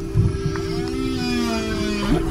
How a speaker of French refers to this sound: La nouvelle étude a d'ailleurs modélisé les vocalisations de la baleine noire de l'Atlantique Nord, une espèce en danger critique d'extinction, et qui habite justement les deux points chauds acoustiques de l'Atlantique Nord.